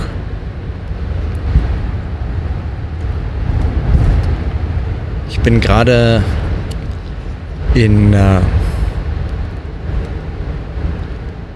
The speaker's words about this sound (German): im Auto unterwegs nach Bern und vor ein paar Minuten über die Grenze